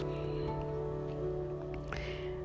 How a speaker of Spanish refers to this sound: El día ha comenzado mal, esta lluvia me va a hacer llegar tarde.